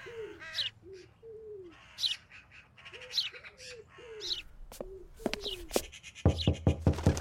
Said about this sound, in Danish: Og måske en skovdue også, nu hvor der er park.